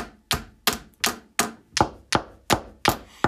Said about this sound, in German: Sie klopfte mit einem, mit, sie klopfte mit einem Stift gegen das Fensterbrett.